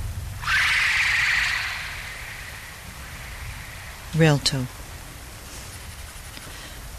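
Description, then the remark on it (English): Steady rain patters and hisses throughout on Relto, swelling louder for a moment early on, while a voice briefly speaks a single word over it. “It's raining on Relto.”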